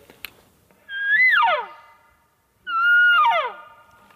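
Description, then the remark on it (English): Two loud elk cow calls made through a bugle tube, each a nasal, whining mew that rises briefly then slides downward, separated by a short pause, with no talking. “make a couple cow calls through a bugle tube.”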